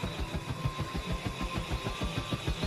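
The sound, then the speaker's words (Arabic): Airplane engines roar steadily at takeoff as the plane sways and rises off the ground, a loud continuous drone with a rapid low throbbing pulse and a thin whining tone riding on top, no voices. “وبدأت الطائرة تتمايل مرتفعة عن الأرض ومحركاتها تهدر”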